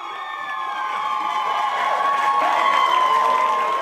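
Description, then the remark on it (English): A large, excited crowd of mostly female Twilight fans lining up cheers and screams continuously, many high-pitched voices overlapping into a loud, steady roar that swells slightly toward the end. “It starts with many, mostly female Twilight fans lining up, barely able to contain their excitement.”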